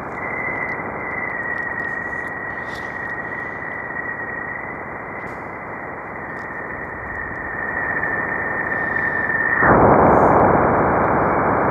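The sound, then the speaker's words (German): Sonified plasma-wave data of a bow shock, recorded by the Waves instrument of the Juno spacecraft: a dense, hissing wash of static with a thin steady whistle above it, then a sudden jump near the end into louder, harsher noise as the whistle drops away. “So, das war dieser Bow-Shock, ne?”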